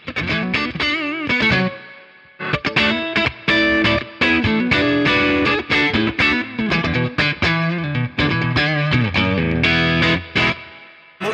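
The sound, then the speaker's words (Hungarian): Electric guitar through a Tube Screamer overdrive pedal, playing a loud, gritty run of picked chords and notes with a short pause early on, then steady driven playing with no voices. “Mert ezt most próbálok egy kicsit sokak által nagyképűen mondom, próbálok egy kicsit ilyen májeres, mélyeres hangot.”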